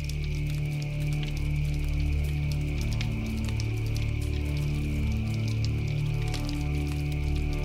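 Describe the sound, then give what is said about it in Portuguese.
Firewood crackles steadily in a fireplace, with sparse sharp pops and snaps over a continuous low rumbling hum and a faint steady high whine throughout. No one speaks. “Ficamos escutando o som do criptar da lenha, olhando para as chamas e sentindo o calor que envolve nosso corpo e o relaxa.”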